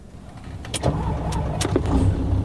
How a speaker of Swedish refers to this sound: Och sen börjar en långsam, försiktig färd tillbaka till Karleby. Bilen körde cirka 40 kilometer per timme från Närpes till Karleby.